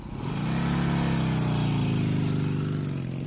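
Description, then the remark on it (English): A motorcycle engine revs up loudly, then holds a steady, throaty drone whose pitch sags slightly over a few seconds. There is no talking. “There is the motorcycle.”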